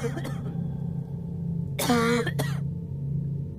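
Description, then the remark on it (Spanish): A girl coughs in a short, harsh burst followed by a second, briefer cough, over a steady low background hum, caused by a pungent smell that stings the nose and burns the throat. “Les hacía sentir picor en las narices y ardor en la garganta. Hizo toser a la hija, que se apresuró a recobrar compostura para continuar.”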